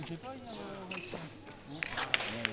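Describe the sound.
A man talks briefly, then a pelota ball cracks sharply against a wall and smacks into a wicker glove during a game of chistera, three crisp, fairly loud impacts in quick succession.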